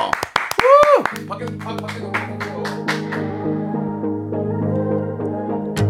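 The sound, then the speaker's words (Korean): A quick burst of clapping and a rising whoop from an audience at a live show lasts about a second, then cuts off as the sustained musical intro of a live song performance takes over. “예, 박수와 함성으로 정해 드리겠습니다. 박수와 함성이요.”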